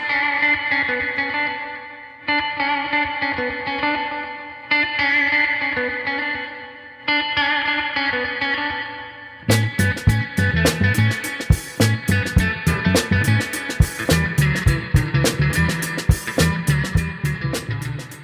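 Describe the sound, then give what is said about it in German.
Live band music from an NPR Tiny Desk Concert: a sustained, effects-laden guitar or keyboard figure repeats in four phrases, then the full band crashes in with driving drums and bass, loud and dense. “Und in der steckt auch schon einiges drin, wie man hier zum Beispiel beim Tiny Desk Konzert bei NPR hört.”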